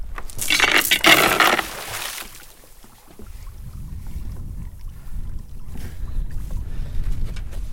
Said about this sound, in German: Er fährt Richtung Ufer, wo die Algen wie ein Unterwasserwald aufschwimmen. Er muss aufpassen, dass die Motorschraube nicht darin hängen bleibt.